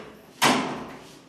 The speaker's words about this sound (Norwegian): Og her går vi inn, og så må vi inn og lukke døra her.